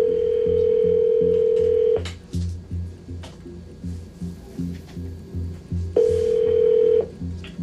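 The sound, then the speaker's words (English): An outgoing call's ringback tone sounds twice, each a steady electronic purr lasting about two seconds with a long silent gap between, over a quiet rhythmic thumping in the background. “No sign of David. We give him a call.”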